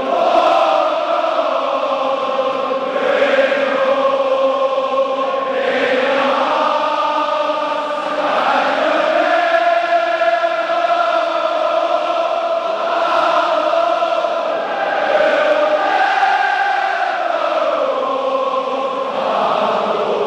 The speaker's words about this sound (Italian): non è quello dei tifosi del Liverpool, ma quello dei tifosi del Celtic, che come sapete condivide con i Reds lo stesso inno della tifoseria